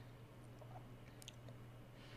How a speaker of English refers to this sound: I gotta take a drink, sorry. Sip, sip.